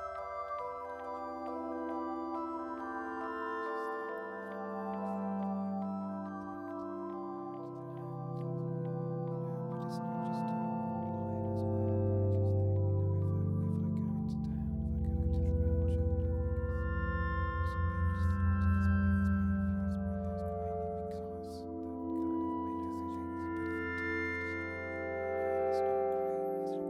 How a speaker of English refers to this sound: Then we get into like around the five minute mark is the first time you, you start to he comes in with some chimes and then this is the first time you hear whispers.